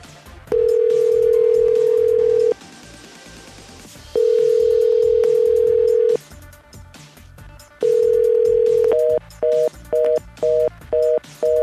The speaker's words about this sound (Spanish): Nadie contesta, la llamada se corta, es el número que ha puesto a disposición que todas las noches repite el sector salud para pedir informes, para acercarse a que le realice, si usted tiene síntomas, el sector una prueba de COVID-19. Nadie responde,